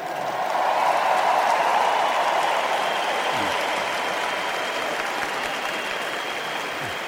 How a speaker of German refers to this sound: An dieser Stelle darf Kardinal Meißner noch das Wort ergreifen und wir hören am Applaus, dass viele Pilgerinnen seiner Stimme erkennen.